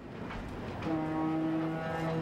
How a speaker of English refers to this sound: So no matter where you are in the city, if you can hear the Golden Gate Bridge foghorn, you can call the bridge and know how far you are from the bridge just by the number of seconds it takes for the sound to get to you